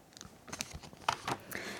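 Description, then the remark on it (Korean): Telephone dialing sounds as a call is placed to a listener on the radio show Lee Eun-ji's Gayo Gwangjang: a run of faint, irregular clicks and taps, then a sudden loud, steady electronic tone right at the end. No one speaks. “그러면 우리 이분, 2104님, 전화 걸어보자고요.”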